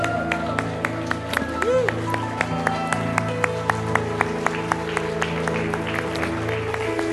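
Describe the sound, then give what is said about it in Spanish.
A church audience breaks into sustained applause for God after putting out their candles, many hands clapping in a dense, uneven patter that keeps going for several seconds over a steady, held musical drone. “Con mucho cuidado puedes apagar tu vela y darle un fuerte aplauso a nuestro Dios.”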